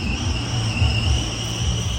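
Steady road traffic rumbles at the side of a road at about 6:45 in the morning, in an area of rice paddies and tea plantations: a continuous low roar of passing vehicles with a faint high whine running through it and no voices.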